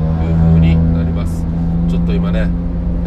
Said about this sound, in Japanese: バイクが通り過ぎたのでうーっとうるさかったかもしれませんが